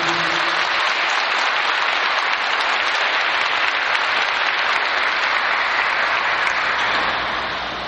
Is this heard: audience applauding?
yes